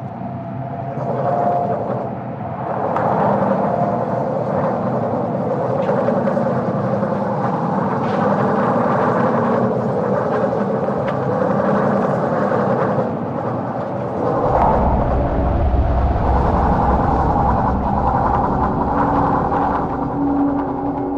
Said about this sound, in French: Dernier souffle de vent avant qu'il ne mollisse inévitablement.